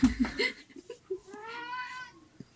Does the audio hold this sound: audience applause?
no